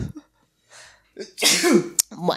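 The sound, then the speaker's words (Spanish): A single loud sneeze bursts out with a breathy, voiced rush, followed by a sharp click and a short laugh and a word from another voice. “Salud.”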